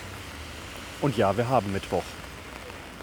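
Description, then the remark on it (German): Heavy rain hisses outdoors at a Wednesday market as a continuous, even wash of noise, while a man speaks briefly over it in the middle. “Aber man hört es vielleicht im Hintergrund. Es regnet total, deswegen ist wahrscheinlich der Markt nicht da.”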